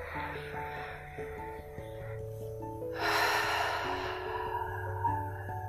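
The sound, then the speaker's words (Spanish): A single deep, breathy exhale through the mouth after taking a deep breath, fairly loud, lasting about a second over steady soft background music with sustained tones. “Así que bueno, te voy a pedir que tomes una respiración profunda y exhales por boca.”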